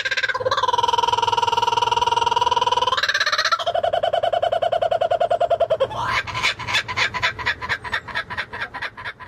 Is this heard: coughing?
no